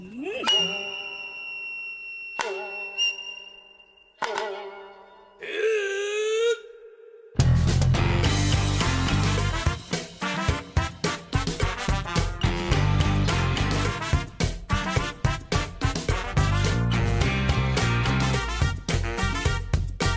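A few clear ringing chime-like tones open, then a loud, full band song kicks in with steady driving drums and dense instrumentation that continues to the end.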